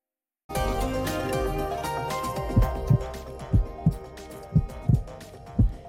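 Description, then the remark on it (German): A steady heartbeat of deep, paired lub-dub thumps, about four beats at a calm pace, pulsing over a sustained layer of music that fades in after a brief silence. “Den Herzschlag zu überwachen ist bei vielen Kranken wichtig.”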